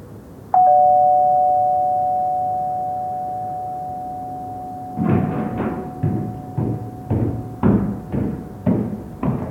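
A doorbell at the front door of a house, his parents' home, is pressed slowly and chimes once with a long, ringing tone that slowly fades. Then a series of firm knocks or footsteps sound in a steady rhythm.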